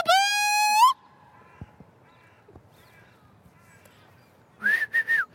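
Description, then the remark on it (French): A loud, sustained whistle calling a dog named Boubou back holds one steady pitch for under a second and bends upward at the end. Quiet follows, then three short, harsh calls. “Attends, je vais le rappeler.”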